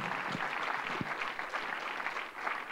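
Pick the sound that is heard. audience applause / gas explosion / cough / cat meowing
audience applause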